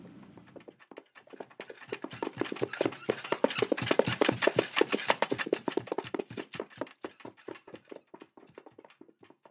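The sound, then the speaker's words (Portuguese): A horse-drawn cart clatters past, its steady clip-clop of hooves growing louder as it approaches, then fading away, with no voices. “o único som que realmente existe aqui é de uma carroça ou de uma charrete”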